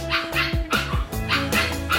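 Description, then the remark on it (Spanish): A dog barks repeatedly in a quick, rhythmic series of sharp, fairly high-pitched barks, clear, with no one speaking. “Además, la UBA está entrenando perritos para detectar el coronavirus.”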